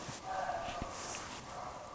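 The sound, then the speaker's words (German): A roe deer gives a hoarse, dog-like alarm bark at a clearing, a short rough call rising out of steady outdoor background noise, with no one speaking; the deer barks when startled, as a warning to other animals. “Das ist ein, ein Reh ist das.”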